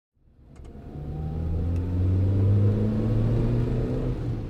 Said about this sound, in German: Ein Pkw braust über eine Landstraße ein wenig schneller als erlaubt. Der Wagen nähert sich einer Ortseinfahrt, doch der Fahrer bremst nur gemächlich ab.